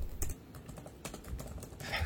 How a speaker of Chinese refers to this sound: 在打字吗？